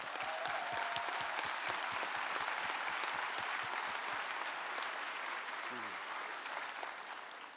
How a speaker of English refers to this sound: Let's give the Lord a big hand. Amen.